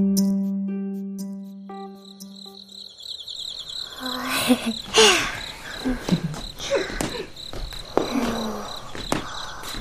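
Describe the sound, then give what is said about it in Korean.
In the insect hall of a natural history museum, a steady, high-pitched cricket trill runs continuously, mixed with rustling, shuffling movements and scattered knocks, after a low electric hum fades out in the first few seconds. “귀뚜라미 좋아하세요?”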